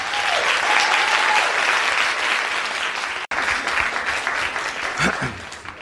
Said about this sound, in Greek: Το πιο θερμό χειροκρότημα.